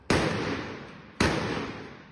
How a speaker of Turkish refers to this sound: Dışarı çıktı, komşularını tehdit etti önce. Sonra da apartman boşluğundan pencerelere doğru pompalı tüfekle ateş açtı.